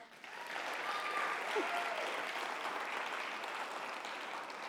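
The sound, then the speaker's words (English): An audience bursts into a steady round of applause for a woman about to speak from God's word, dense clapping that holds at an even, fairly loud level for several seconds before easing slightly toward the end. “So can we give her one more round of applause?”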